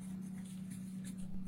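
Soft, scratchy strokes of a pen moving across paper at a desk in short irregular bursts, quiet and unhurried, over a steady low hum with no voices.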